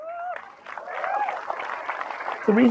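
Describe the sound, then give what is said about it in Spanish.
A burst of audience applause, a dense, steady patter of many hands clapping for a couple of seconds, with a speaking voice briefly audible at the start and again as it ends. “La razón por la que todo el mundo se rió antes y aplaudieron ahora es porque algo pasó.”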